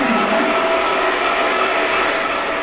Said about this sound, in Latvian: Elvīra ar pulti iedarbina pacēlāju, kas izvietots pie kāpņu margas.